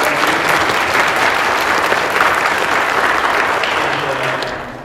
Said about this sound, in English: Can you give him a round of applause for...